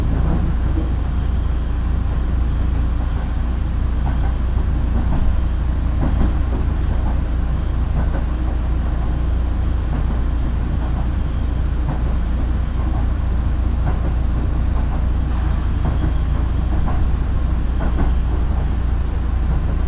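A local train on the Minobu Line in Japan runs steadily from Shibakawa to Minobu: a continuous low rumble with faint rhythmic clicks of wheels on rail joints, loud and unbroken, with no voices.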